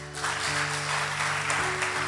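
A church audience claps together in steady, dense applause to the Lord that holds at an even level throughout, with a sustained musical tone humming underneath and no voices standing out.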